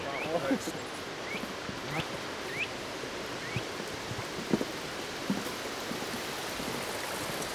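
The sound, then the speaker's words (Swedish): A steady, full rush of river rapids in August fills the scene without letup, while a few short rising chirps of a nuthatch sound faintly above the roar at irregular intervals. “jag mm. tror att det mm. kanske är forsen och lite fåglar som det kvittrar”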